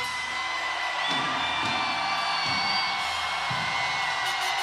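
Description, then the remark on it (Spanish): A large crowd shouts and whoops together at full volume at a preacher's call to shout, a dense continuous roar of many voices lasting several seconds with no single speaker standing out. “Y yo digo, ahora hay que gritar.”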